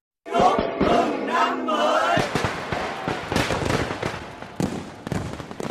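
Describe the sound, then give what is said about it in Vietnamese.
Fireworks burst in a rapid, uneven string of sharp cracks and booms while a large crowd cheers and shouts loudly throughout, the whole scene busy; New Year's Eve fireworks fired simultaneously at 11 sites in Ho Chi Minh City, Vietnam, at the moment the old year turns to the new. “Đêm giao thừa hôm qua, thành phố Hồ Chí Minh đồng loạt bắn pháo hoa tại 11 điểm trong khoảnh khắc chuyển giao năm cũ và năm mới, cầu rồng ở Đà Nẵng rực sáng cùng những màn pháo hoa nhiều màu sắc.”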